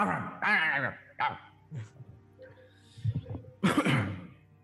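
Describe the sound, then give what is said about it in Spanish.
A person imitates the barking of Arfmarf, a creature character in a told story, with a handful of loud, gruff woofs in an uneven rhythm, some drawn out and growly, others short, with brief pauses between. “Armable ladra.”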